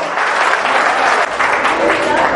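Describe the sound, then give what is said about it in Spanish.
An audience applauds invited guests who have stood up, loudly and steadily, dense clapping filling the space without pause, with a slight dip midway before continuing at full strength. “Un aplauso para ustedes, un aplauso.”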